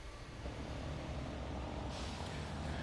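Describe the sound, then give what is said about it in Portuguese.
Steady road traffic rumbles at the toll plaza of the Rio-Niterói bridge in Rio de Janeiro, a continuous broad wash of engine and tire noise from passing cars and heavier vehicles heading toward the Região dos Lagos, flowing calmly with short queues, with a brief hiss like an air brake partway through. “Aumentou o movimento na última hora, mas ainda assim os carros passam aqui com uma certa tranquilidade.”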